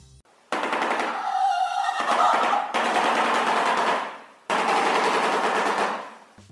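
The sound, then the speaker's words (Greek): A shoebill, a pelecaniform bird, clatters its bill in rapid, rattling bursts like machine-gun fire, three sustained loud volleys with brief pauses between, no voices. “Αυτό που ακούσατε είναι ο φαλενοκέφαλο, ο οποίο είναι ένα πελεκανόμορφο πτηνό”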